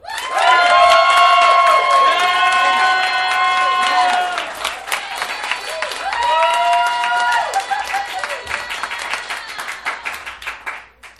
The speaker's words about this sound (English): If you believe that the winner of this debate, arguing that we phantom thread all the guys, is Lindsay Eanet, please applaud now.